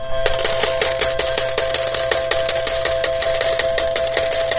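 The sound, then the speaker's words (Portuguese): A loud, continuous cascade of coins pouring and clinking, with dense metallic jingling and rapid repeated chinks filling the whole stretch, bright, with no voices. “Por outras palavras, cada vez que o Nile Horan paga um café, o que se deve ouvir é mais ou menos isto.”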